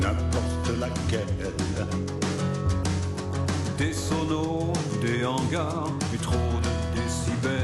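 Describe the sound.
An unreleased duet: a full-band rock song plays loud and steady, with driving drums, guitars and bass under sung lead vocals that carry the melody throughout.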